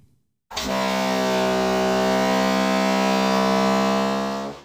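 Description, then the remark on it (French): A processed boat horn, pitched up four semitones to the note C, holds one steady, loud harmonic tone for about four seconds after a brief silence, then tapers slightly at the end. “Je reprends pour cela le son du bateau, mais que je vais éditer et traiter bien différemment par rapport à la première partie.”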